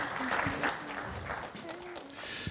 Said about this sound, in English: All right. Amen. You can clap, yes.